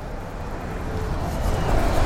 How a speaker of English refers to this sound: I'm walking along home from work right now, pushing my bike. You can probably hear the cars going past, and who knows where you are.